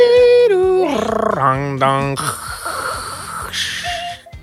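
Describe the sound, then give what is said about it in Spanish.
A voice mimics a dial-up modem connecting: warbling, pitch-sliding beeps give way to a harsh, steady static hiss with a brief higher tone near the end, loud for about four seconds. “tiene dial up, no puede, tiene que hablar con la.”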